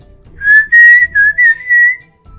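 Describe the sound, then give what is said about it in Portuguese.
A grandmother whistles in imitation of the Saci's eerie call at a boy playing on a swing hung in a jabuticaba tree: one loud, high-pitched, slightly wavering tone held for about a second and a half, broken by a few brief dips, with no talking. “E aí minha avó que arrepende de tudo e promete nunca mais imitar Saci”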